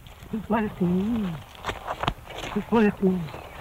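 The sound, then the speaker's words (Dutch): A duck in Australia makes odd, voice-like vocalizations imitating human swearing: two strained, rising-and-falling phrases separated by short clicks and pauses, clear. “En in Australië is een vloekende eend opgedoken en die zegt heel wat over het leergedrag van vogels.”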